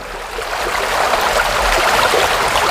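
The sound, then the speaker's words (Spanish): The River Cole, near Birmingham in central England, pours steadily past a water mill's turning paddles, a loud, continuous rushing wash of water with no voices and no distinct pauses. “Y oímos pasar, lo escucháis perfectamente, el río Cole, donde las palas de un molino, fíjate qué bonito Sergio, las palas de un molino de agua giran con la corriente.”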